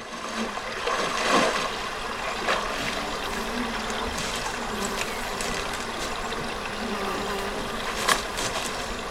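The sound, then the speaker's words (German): An outdoor lakeside ambience with a few people at a lake: steady lapping water and a buzz of insects, with a few soft barefoot footsteps crunching through rather dry grass at irregular moments. No one speaks. “Man hört Wasser, man hört Laufen auf dem eher trockenen Gras.”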